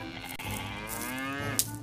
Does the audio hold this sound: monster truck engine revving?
no